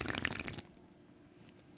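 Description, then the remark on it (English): A couple of beer cans are cracked open: a fizzy, hissing burst of escaping carbonation, then a quiet pause and one sharp metallic snap near the end. No one speaks. “That, my friends, is the sound of a couple beers being cracked.”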